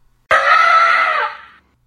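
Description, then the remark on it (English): A single loud elephant trumpet blasts in suddenly, a brassy, harmonic blare that holds for about a second before tapering off. No one speaks over it. “Hannibal had a second part to his sneaky plan elephants.”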